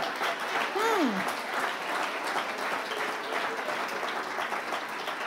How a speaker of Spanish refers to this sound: Dale un aplauso fuerte, déselo.